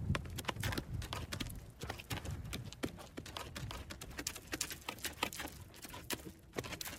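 Horse hooves clip-clop at an unhurried, steady walking pace, each hoof strike sharp and distinct, heard alone with no voices.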